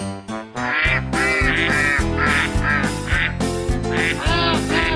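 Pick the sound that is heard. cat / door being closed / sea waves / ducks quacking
ducks quacking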